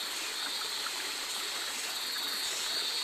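Steady trickling water of the Bilahing River, near a mine, splashing between exposed coal rocks, a continuous bright babbling wash that stays even throughout, moderately loud with no voices.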